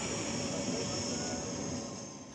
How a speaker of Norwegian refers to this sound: Dette er flyet med presidenten og diktatoren gjennom 22 år som er klar til å ta av.